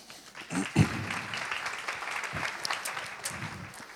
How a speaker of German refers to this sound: Applaus.